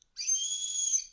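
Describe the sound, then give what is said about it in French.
A shrill, steady whistle from a recorder held in the player's hand, with its window covered by the palm, one sustained high tone lasting about a second, fairly loud, with no talking. “j'ai entouré la flûte de ma main, en fermant la fenêtre avec la paume, et vous l'aurez constaté, vos oreilles ne me remercient pas.”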